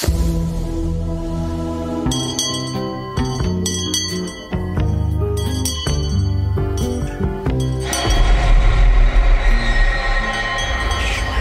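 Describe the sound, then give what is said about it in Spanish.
A bell from the TV series From rings with a rapid run of bright metallic strikes whose overtones hang in the air, then gives way to a loud, rumbling rush of noise near the end; no one speaks. “Esa campana, para todos aquellos que vimos la primera temporada, tiene que ser una pista.”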